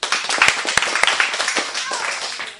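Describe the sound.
A group bursts into steady applause for a correct answer about the red triangle of the Cuban flag, many hands clapping for a couple of seconds, with a few voices mixed into the noise.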